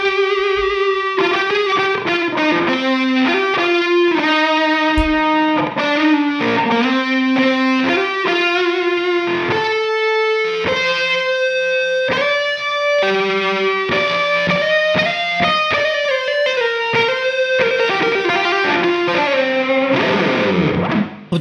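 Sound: distorted electric guitar playing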